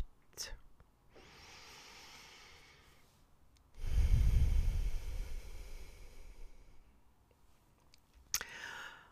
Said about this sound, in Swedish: Och kanske hörde du till och med att jag andades in och andades ut genom näsan.